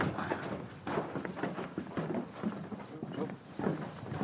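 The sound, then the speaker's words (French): Footsteps thud steadily across a boat pontoon at Port-la-Forêt, on a walk with sailor Jean Le Cam to a boat, a quick run of hollow, wooden knocks with a clip-clop rhythm, while faint voices murmur underneath. “Le bruit du ponton.”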